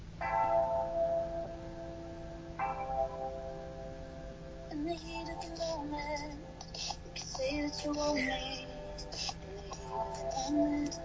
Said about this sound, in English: Okay, so I'm going to play a little bit of this quote unquote mermaid music. Can you hear it? I can.